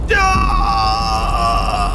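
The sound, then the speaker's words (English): A man lets out a loud, sustained yell of pain as his body is lifted by an unseen force and suspended in the air, a single strained cry that holds steady for about two seconds over a low rumbling background. “Stanhope yelled as his body was lifted by an unseen force and suspended in the air.”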